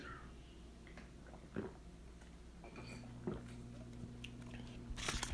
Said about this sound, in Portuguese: Deixa eu tomar um chamito, peraí.